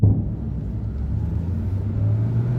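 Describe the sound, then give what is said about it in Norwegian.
A car drives along with a steady low engine rumble, driven too fast at night on the way to Stockholm, Sweden, the engine note climbing slightly toward the end as it accelerates. No voices are heard. “Jeg kjørte for fort, gjorde det.”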